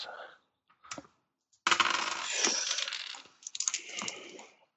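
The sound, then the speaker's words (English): Dice rolled for intelligence rolls rattle and tumble across a hard surface: a couple of brief clicks, then a long clattering roll that slows and finishes with a second, softer burst of skittering before settling. “Uh, intelligence rolls.”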